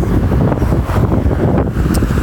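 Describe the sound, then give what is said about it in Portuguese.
On a very windy day with clouds on the horizon, strong wind buffets the microphone in a constant, loud low rumble with gusty roaring surges, and no one speaks. “Mas, cara, eu Pô, tá ventando muito,”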